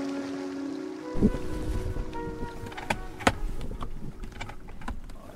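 Harbour ambience aboard a small 25-foot boat in the harbour at Svendborg, getting ready for departure: a steady low mechanical hum over washing water and breezy noise, with a couple of sharp knocks. No one speaks.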